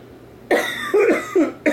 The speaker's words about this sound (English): Sorry. oh no, no, because it's so stupid, dude. I would cough too.